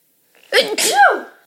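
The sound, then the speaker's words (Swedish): A single loud sneeze: a short breathy intake, then a sharp explosive burst trailing into a voiced, wavering exhale, with no talking during it. “Vänta nu måste jag nysa.”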